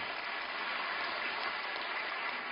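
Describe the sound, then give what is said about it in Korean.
A church audience applauds steadily to give glory to God during a service. The applause is a dense wash of many hands clapping at even loudness throughout, with no voices over it. “우리 하나님께 큰 영광의 박수 올려드립니다.”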